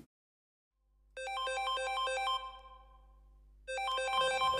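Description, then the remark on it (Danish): An electronic video-call ringtone plays a bright, chiming melodic phrase, pauses briefly, then starts repeating, heard clearly alone over a faint low hum; a municipal care worker's scheduled video call to an 84-year-old woman for a screen visit helping with her bath. “Skærmbesøget foregår ved, at en medarbejder fra kommunen ringer Jonna op på et fast aftalt tidspunkt.”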